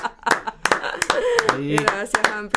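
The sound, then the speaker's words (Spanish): A short burst of hand clapping, a dozen or so sharp, uneven claps from a small group, with voices talking and exclaiming over the applause. “aplausos grabados en la vida celular, pero vamos a dar uno.”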